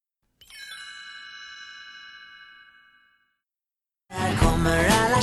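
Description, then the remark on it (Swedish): A single bright chime rings out and slowly fades, then after a short silence a loud, dense Swedish-language pop song by a major Swedish artist kicks in with a full band for the last second or so. “Men den här låten, den här är på svenska och den låter så här.”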